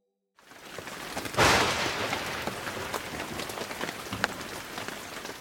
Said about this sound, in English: It's raining. Said Noah. The flood is coming. It rained for 40 days and 40 nights until water covered the whole earth.